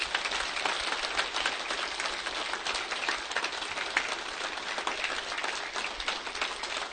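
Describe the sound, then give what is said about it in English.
Sustained applause from a conference audience for the organizers, dense overlapping claps at a steady, fairly loud level for several seconds without letting up. “So would you uh, give them a round of applause, please?”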